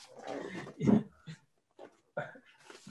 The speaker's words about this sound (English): Uh, hold on one second, because my dog keeps uh, chewing on.